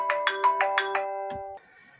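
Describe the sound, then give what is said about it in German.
A mobile phone ringtone plays a quick series of six bright electronic chimes over a sustained tone, then cuts off abruptly after a short blip, clear with no talking. “Da klingelt mein Telefon, warte mal.”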